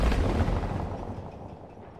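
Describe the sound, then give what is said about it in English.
A far-off explosion booms with a deep, rumbling low end, then rolls away in a long echoing tail that fades over a couple of seconds. No voices. “An explosion echoes in the distance.”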